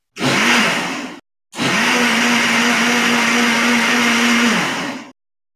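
An electric blender blends mango juice at about 10 pm, whirring loudly in two bursts, a short one followed by a longer steady run of about three seconds, with a constant motor hum and no voices.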